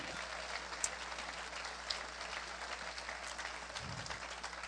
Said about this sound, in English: amen amen give the lord a good hand clap of praise together